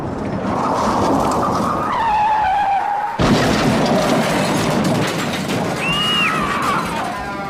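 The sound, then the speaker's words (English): Lucio Lapine's car tires screech in a long, loud skid, then an abrupt crash as the car drives through the front wall, followed by continued rumbling noise and another brief tire squeal near the end. “I think the car crash was a combination of the two, but mostly the stress.”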